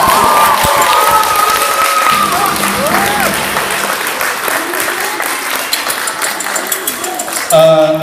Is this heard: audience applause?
yes